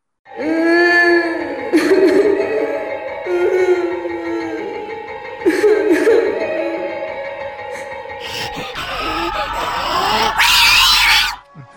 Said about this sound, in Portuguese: E aí a gente tem umas coisas marcantes, tipo o choro da Witch, né? Nossa senhora.